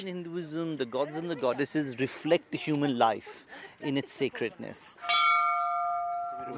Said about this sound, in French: On est devant le temple, on enlève les chaussures. Ah, on nous sommes devant une sorte de, porte ronde euh, qui ouvre sur un, ben, un, grand hall où les gens rentrent en faisant sonner la cloche.